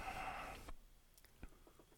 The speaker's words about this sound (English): Hmm, he's taking a sip of beer. Great.